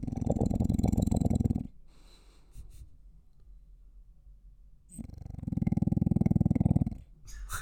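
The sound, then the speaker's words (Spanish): A sleeping dog snores in two long, rumbling breaths separated by a quiet pause of a few seconds. There is no talking. “voy a sacarlo para que escuchen. pero estás Esto Milka durmiendo. Una ASMR.”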